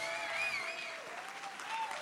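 A crowd applauds loudly and steadily for Jesus, with dense clapping that holds for about two seconds and faint sustained tones running underneath.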